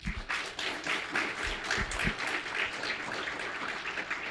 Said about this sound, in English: So everybody, give a round of applause